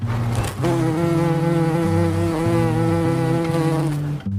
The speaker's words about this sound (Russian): А у шмеля крылья побольше, и машет он ими медленней – поэтому жужжит он важно и громко.